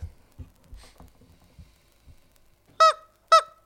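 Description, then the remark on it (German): A few soft, low thumps give way to two loud honking squawks from a chicken sound effect, spaced about half a second apart, with no talking. “Und ah, gib mir mal so ein Huhn hier.”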